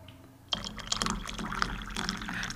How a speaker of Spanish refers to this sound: Vamos a arrancar este Vamos a este arrancar con un rico sonido de café, güey. El ASMR, güey, de café.